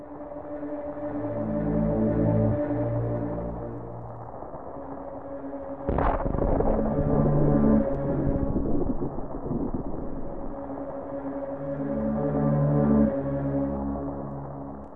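Dark, droning ambient video game music with a thunderstorm built into the track: a sudden loud thunderclap midway, followed by a heavy rolling rumble that fades back under the sustained tones.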